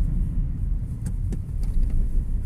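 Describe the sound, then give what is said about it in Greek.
A car drives along a three-lane road with a steady low rumble of engine and tyres, plus a few faint ticks and soft brake noise as the driver brakes for someone crossing without looking. No one speaks. “Τώρα πατάω φρένο γιατί περνάει ένα χωρί να κοιτάξει καθόλου ένα δρόμο που έχει τρία ρεύματα κυκλοφορία.”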